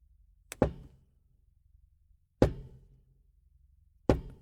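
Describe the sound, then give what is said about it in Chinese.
Three heavy knocks on a door, spaced about two seconds apart, each a sharp thud with a low, lingering boom; the first lands as a quick double hit. No one speaks. “敲门声又响了很久”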